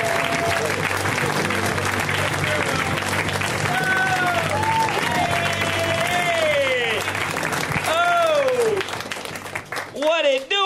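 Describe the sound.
A crowd applauds steadily and loudly as a comedian is introduced, with whoops and cheers rising over the clapping before it fades and a voice begins to speak.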